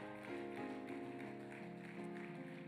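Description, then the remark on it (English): A church audience clapping their hands in a steady, continuous patter for their pastor and his wife, blended with sustained organ-like chords. The whole sound is fairly soft, with no clear speech. “How many you love your pastor and his wife? Can you clap your hands?”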